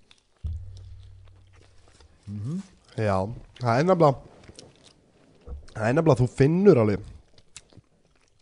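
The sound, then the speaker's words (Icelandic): Close-up chewing and mouth smacking right at the microphone, mixed with appreciative hums and a person talking between bites. “afsakið er að smjatta í mikrofónin líka”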